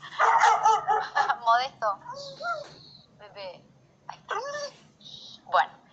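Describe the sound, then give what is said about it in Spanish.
A dog barks in a loud, irregular burst of sharp barks and higher, whiny yelps, pausing briefly before a few more barks toward the end. “Tengo aquí a perro.”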